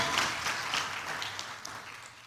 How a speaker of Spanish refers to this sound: Usted le da palmas al Señor con gozo, con alegría. Aleluya.